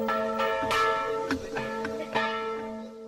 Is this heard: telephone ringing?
no